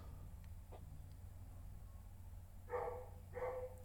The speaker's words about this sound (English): because there was a dog barking. Oh, the dog next door.